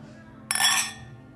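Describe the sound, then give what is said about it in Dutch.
A single bright clink of glasses of orange wine touching in a toast, ringing briefly before fading out, over a quiet background. “Bon smakelijk en proost. Proost”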